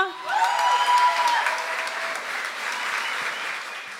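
An audience bursts into steady applause, many hands clapping in a dense, even patter that holds at a fairly loud level for several seconds, with a faint tonal hum audible near the start.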